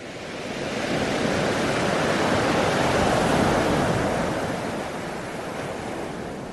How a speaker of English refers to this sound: Wow, it's almost like you've never heard a wave before. That's exactly how I feel.